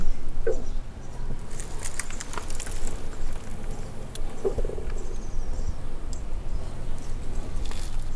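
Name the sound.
stomach gurgling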